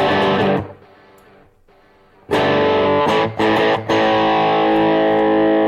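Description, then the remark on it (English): A Kramer electric guitar played through an EVH overdrive, heavily overdriven with thick, saturated distortion: a sustained chord fades into a quiet gap, then loud crunchy chords return with brief choppy stops and a long ringing sustain. No voices. “EVH overdrive, man. This really does give you the sound of an EVH amp.”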